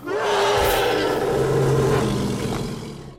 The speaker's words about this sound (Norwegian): Vesenet står over deg og brøler sin triumf.